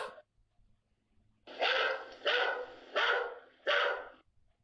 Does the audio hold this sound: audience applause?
no